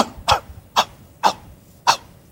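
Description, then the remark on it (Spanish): A person imitates the bark of an old dog that has no voice, with four breathy, voiceless huffs, evenly spaced about half a second apart, fairly loud with no voiced tone. “Y mm, ¿sabes que mi perro no tiene voz? Y ladra así.”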